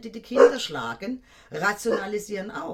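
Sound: dog barking and whimpering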